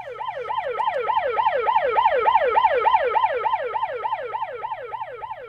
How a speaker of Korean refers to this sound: 그 사이 경찰 사이렌은 점점 커지고 있었습니다.